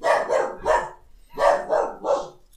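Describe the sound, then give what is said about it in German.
A dog barks in two quick bursts of three sharp, loud barks each, separated by a brief pause, with no one talking. “Hallo Hund.”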